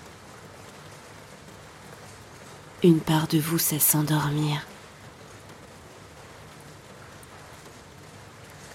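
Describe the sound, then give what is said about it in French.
Steady, soft rain patters continuously throughout, a gentle even hiss, while a calm voice speaks briefly over it near the middle. “Hypnose pour s'endormir sous la pluie”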